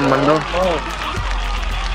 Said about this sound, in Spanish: Bueno. El aplauso. Ahí.